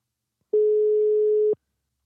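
A single steady telephone ringback tone sounds once for about a second as an outgoing call is placed after pressing the call button, a clear, even hum-like beep with soft clicks at start and end, alone with silence on either side.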